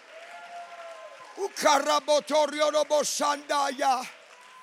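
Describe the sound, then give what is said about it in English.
An audience erupts in loud shouts and cheers of praise to God, voices rising together in a series of energetic bursts, with clapping mixed in and a quieter hum of voices before it starts. “Somebody give God a shout of praise right now.”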